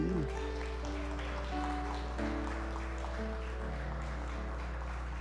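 An audience at a Christian worship service claps steadily throughout as applause to God, a dense patter of many hands, with sustained keyboard or organ chords playing underneath.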